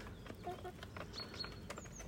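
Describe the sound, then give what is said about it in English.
Eight chickens cluck softly and continuously as they eat at a feeder, their short, overlapping calls forming a busy, murmuring flock sound with a few higher chirps scattered through. “I've got to say, I recommend chickens as a pet.”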